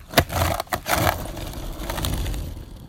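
A skateboard drops in on a U-shaped ramp with a sharp clatter and a couple of quick knocks as the rider falls off the board, then rolls away in a steady, gritty rumble of wheels. Fairly loud, with no voices.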